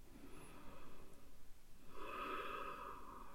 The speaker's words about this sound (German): Wieder muss ich atmen, denn es sind für wahr tiefe Themen und auch ich bin geneigt, in den Kopf zu kommen und zu schnell zu sprechen. Deshalb lade ich auch dich ein, zu atmen und den Atem von der Nase an